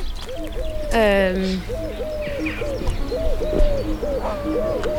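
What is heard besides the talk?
birds singing outdoors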